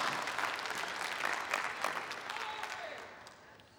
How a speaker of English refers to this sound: It's okay for you to clap for that.